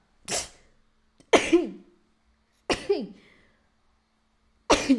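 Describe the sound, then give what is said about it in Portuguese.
Four sneezes in a row, each a sudden harsh burst of breath, some ending in a short voiced, falling cry, with brief pauses between them and no talking. “Aí eu vou espirrar.”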